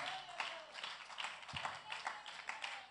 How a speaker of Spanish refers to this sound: Oh, ese aplauso al Eterno que Él vive.